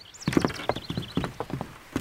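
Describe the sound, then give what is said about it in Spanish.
Horse hooves clip-clop in a steady, quick rhythm on a hard road as a horse-drawn carriage drives away, with a thin high squeal near the start and no voices. “Nos quedamos de pie junto a la ventana mirando cómo se alejaba el coche.”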